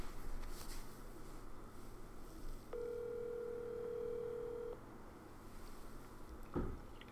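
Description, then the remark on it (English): An outgoing phone call to the next person on a list rings once, a steady electronic ringback tone lasting about two seconds over a low background hum, followed by a brief click as if the line connects. “I will call the next person on the list.”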